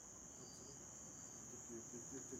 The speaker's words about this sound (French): Et la nuit tombait, les grillons chantaient de plus en plus.